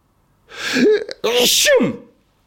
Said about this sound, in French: Je vais éternuer. Eh ben, ça, c'est les deux buts de Batigol. Le double éternuement.